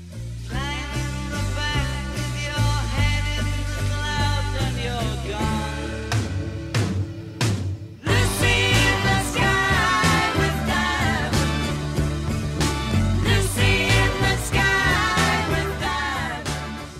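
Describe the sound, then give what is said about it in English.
A 1967 psychedelic rock song with a whirling, circus-like feel plays loudly and continuously, with dense layered instruments and a brief drop around the middle before the full band surges back in. “The almost circus like music is very much appreciated by myself.”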